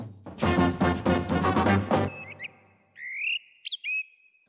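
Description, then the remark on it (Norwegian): A loud, dense musical burst gives way to a thrush (a song thrush or blackbird) singing: a few clear, fluting whistled phrases, fairly loud, separated by short pauses and fading at the end. “det er faktisk Miljødirektoratet som nå åpner opp for jakt på måltrost og svarttrost”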